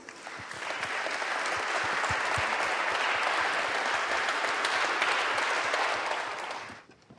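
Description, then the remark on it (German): An audience claps steadily for several seconds, a dense, even wash of many hands that swells in quickly, holds at a strong level, then fades out near the end. No one speaks. “Ich glaube, er hat einen großen Applaus verdient.”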